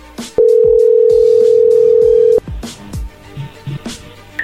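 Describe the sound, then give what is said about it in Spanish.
A steady, loud single-pitch dial tone hums for about two seconds, then cuts off, followed by a few soft clicks and faint handling noises as the number is redialed. “A ver, márcale de nuevo.”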